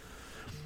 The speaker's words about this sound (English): Excuse my phone vibrating.